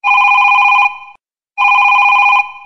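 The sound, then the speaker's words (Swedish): A telephone rings loudly in two long electronic trills separated by a brief pause, each burst a rapid warbling tone with no voices present. “Hey, answer the freaking phone!”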